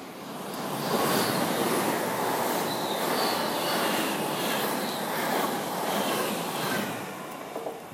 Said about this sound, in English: And there's a train about to go past, so shield your ears.